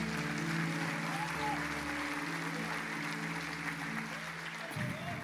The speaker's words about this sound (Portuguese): Vocês podem aplaudir Jesus por isso?